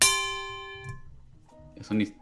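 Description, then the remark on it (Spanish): A single loud metallic bell sound effect, tinny like a struck pot, is played during a live stream. It rings out and decays over about a second before someone starts talking. “El sonido, Eso suena como una olla.”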